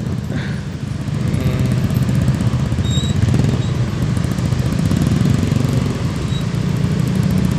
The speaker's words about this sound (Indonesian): uh, eh, Android gue kayak kedengeran gak sih suara suara traffic trafficnya ini tonton oh. gue berharap sih kedengeran